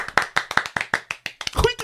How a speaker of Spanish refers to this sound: Un aplauso